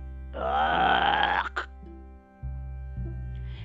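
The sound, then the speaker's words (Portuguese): A voice imitates a wolf's big, loud burp after it swallowed a grandmother: one long, rough, rumbling belch lasting about a second, followed by a low hum and quieter background sounds. “Depois disso, ele deu um tremendo arroto.”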